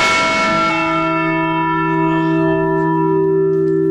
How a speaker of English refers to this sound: ring on, Liberty Bell, ring on.